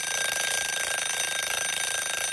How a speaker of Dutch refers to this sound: Maar goed, daar geen, oh, dan gaat de wekker, die heb je ook meegenomen.